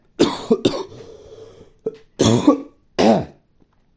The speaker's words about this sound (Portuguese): Tá difícil uma tosse saindo uns ranhos do caralho, uns ranhos amarelo, cara.